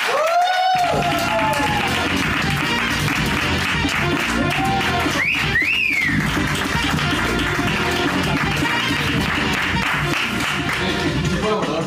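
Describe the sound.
Loud, sustained applause from a large audience fills the whole stretch, with shrill rising whistles cutting through midway and scattered cheering voices mixed into the clapping.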